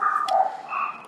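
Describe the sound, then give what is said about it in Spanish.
A dog barks in the background, a quick run of high, slightly whiny barks lasting about a second, moderately loud and with no voices present. “ay perdón por el perro que está ladrando”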